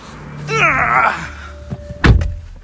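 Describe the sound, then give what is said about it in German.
A short electronic welcome chime from a Renault Zoe electric car, a smooth rising and wavering synthetic tone lasting about a second, followed moments later by a solid door thunk. No one speaks. “Was war das? Ein Welcome Home Sound?”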